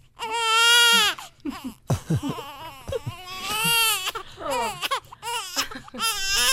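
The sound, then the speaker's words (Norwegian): A baby crying in loud, high-pitched wails, several long sustained cries broken by short gasping breaths and choppy sobs, with no talking over it. “og da kan det jo hende at du kan ønske deg at det kommer noen og tar babyen din.”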